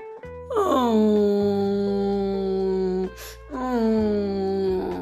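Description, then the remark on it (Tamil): A voice imitates a crane sitting on a rock at a pond, wailing loudly enough for all the water creatures to hear: two loud, drawn-out crying moans, the first long and sliding downward, then a second shorter one after a brief breath, without other talk. “அப்படின்னு எல்லா தண்ணிக்குள்ளே இருக்க பிராணிகளுக்கும் கேட்குற மாதிரி சத்தம் போட்டு அழுக ஆரம்பிச்சிச்சு என்னடா வினோதமாக சத்தம் கேட்குதேன்னு தண்ணிக்குள்ளே இருந்த எல்லாரும் மேலே வந்துட்டாங்க”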